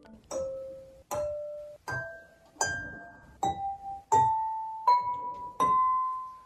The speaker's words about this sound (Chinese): 经过一番努力，我们终于调好水杯钢琴的音阶了。快来听听看！